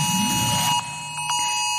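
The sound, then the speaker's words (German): A steady, piercing electronic warning tone sounds alone, loud, layered over a brief burst of rushing noise at the start before the tone continues on its own; an emergency alarm during Germany's third nationwide warning day, at eleven in the morning. “Ja, so klang es wahrscheinlich bei vielen von euch heute Morgen um elf. Zumindest wenn die Alarmketten so funktioniert haben, wie eigentlich geplant.”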